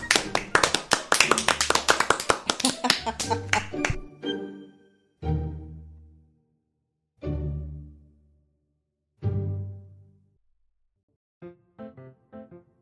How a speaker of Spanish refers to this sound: Y si nos ha gustado, ¿qué más decimos? Un aplauso, nos ha gustado.